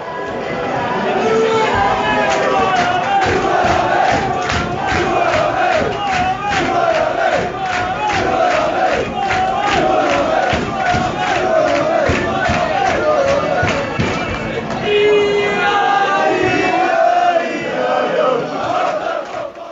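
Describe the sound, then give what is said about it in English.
A large crowd of football fans chants in unison at an away match in Morecambe, loud and rhythmic, with rising and falling voices and steady clapping-like pulses, sustained for the whole stretch as a dense roar of singing. “that chant seems very appropriate right now, doesn't it, to use the uh, halftime break, isn't it?”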